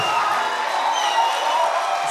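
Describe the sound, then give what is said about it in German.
A crowd applauds and cheers steadily to welcome a preacher, dense clapping blended with whoops and shouts at a constant, fairly loud level throughout without a break. “Und deswegen habe ich jetzt vollkommene Ehre und lasst uns wirklich ihn mit einem fetten, großen Applaus begrüßen.”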